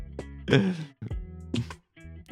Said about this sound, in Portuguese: E aí, alguém morreu de tossir aí?